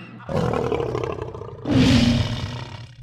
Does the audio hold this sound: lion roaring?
yes